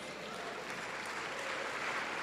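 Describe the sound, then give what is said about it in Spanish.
An audience applauds for Jesus, a steady, dense wash of clapping from many hands that holds at an even level throughout with no voices rising above it. “Dar un aplauso a Jesús.”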